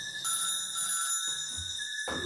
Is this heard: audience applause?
no